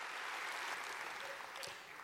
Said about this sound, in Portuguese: Quantos pode aplaudir? Aplaude o Senhor.